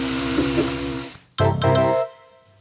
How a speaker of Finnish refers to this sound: Mulla on sattumaa, siinä on täällä just fööni, niin tota, voidaan lähteä testailemaan.